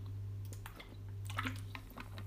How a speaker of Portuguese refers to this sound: Ah, olhem, estou a gravar este podcast enquanto acabo de beber a minha água das pedras.